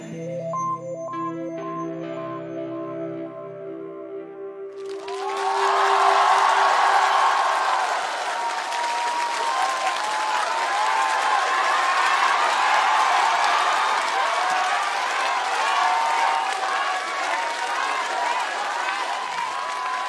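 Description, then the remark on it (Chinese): A sustained musical chord from a live band fades out, then a large audience bursts into loud, steady applause with cheering and whoops that carries on for about fifteen seconds. “谢谢，呃，也希望大家把掌声给我们的吉他手”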